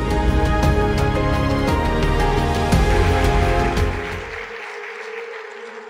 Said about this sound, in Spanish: Recibamos con un fuerte aplauso a nuestro pastor